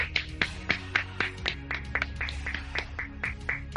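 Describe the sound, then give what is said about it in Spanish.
Hands clap in a steady, fairly quick rhythm, about a dozen sharp claps over a low background hum with no one talking. “Un aplauso, un aplauso. Bravo, bravo.”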